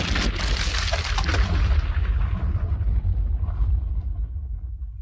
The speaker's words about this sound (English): All right, Katniss was looking at the pile of explosives. There's the explosion. She was very close to the explosion. She was her body was thrown. That's how much pressure and force there was.